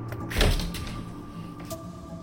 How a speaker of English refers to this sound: I stumbled forward and opened the door.